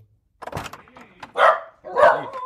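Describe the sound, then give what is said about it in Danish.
A dog barks twice, loud, as a front door opens, with a sharp rustle or door sound just before the first bark; no talking. “Døren åbner, og der står Reno med sin hund.”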